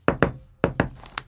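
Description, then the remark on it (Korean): Knocking on a door from outside: two quick pairs of sharp knocks, followed by two fainter, lighter raps, with no voices; a duty officer knocking on a bathroom door in army barracks. “밖에서 노크 소리가 들렸습니다”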